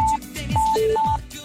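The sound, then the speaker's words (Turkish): Steady electronic telephone tones sound in short pulses, a higher pitch alternating with a lower one, clear with no voices, like a call connecting and ringing, as the winner of an X-Drive Gaming Mousepad giveaway is called. “Çalıyor mu? Bakalım.”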